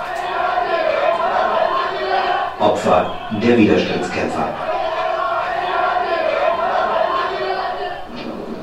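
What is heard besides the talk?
cheering crowd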